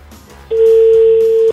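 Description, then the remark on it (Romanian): A telephone ringback tone after dialing on a rotary-dial phone: one steady, loud, pure beep lasting about a second through the handset, rising out of faint background hiss and then cutting off. “Sună. Ha, ia uite, uite că sună.”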